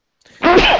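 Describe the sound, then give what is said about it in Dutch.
A single loud sneeze: a brief faint intake of breath, then a sudden harsh burst of noise that fades out quickly. “Gezondheid. Gezondheid.”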